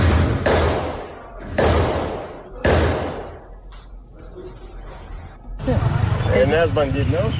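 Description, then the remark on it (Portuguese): Three loud, sharp gunshots ring out about a second apart during a robbery of two credit cooperatives in Nova Bandeirantes, each trailing into an echo heard across the town, followed by a few fainter pops before agitated voices break in at the end. “Gente, é isso que você acompanhou aqui foram tiros.”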